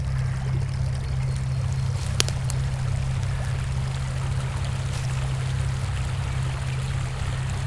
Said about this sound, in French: Tu vois qu'il mène à une petite cascade. Alors tu contournes le relief pour admirer la cascade d'en bas.